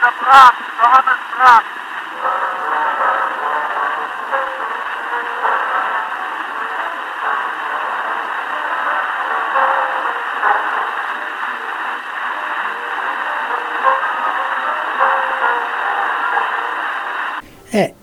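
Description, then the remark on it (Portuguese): An old wax cylinder recording, digitized, of Brahms playing piano, thin and muffled, nearly buried under a steady wash of hiss and surface crackle that runs throughout, with sharp clicks at the start and end. “existe uma gravação de Brahms tocando piano que foi feito com esse sistema de, de cilindros aí”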